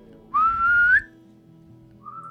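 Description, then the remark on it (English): A single rising whistle call rings out clearly for about half a second, sliding upward in pitch, followed by a faint, brief echo-like tone trailing after it. “He kind of whistles out.”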